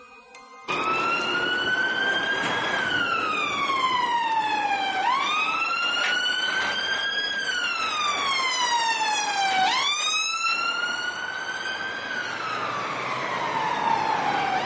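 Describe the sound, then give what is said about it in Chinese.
Police car sirens wail loudly and steadily, their pitch sliding up and falling back in slow repeating sweeps, with no voices over them, as police cars drive past one after another on the way to the Mid-Levels in Hong Kong. “就看见一辆接一辆的警车从我们旁边驶过。”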